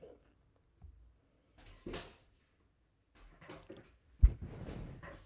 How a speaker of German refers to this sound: Oh mein Gott, meine Katze versucht gerade meine Tür zu schlagen.